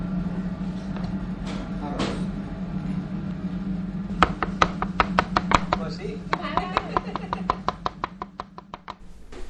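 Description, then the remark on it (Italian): A knife chops quickly and steadily on a cutting board as mushrooms are cut, a run of about twenty crisp strokes that begins after a few quiet seconds, over a low steady hum. “Adesso le pulisco, metti una pentola sopra per favore, così facciamo un po' di...”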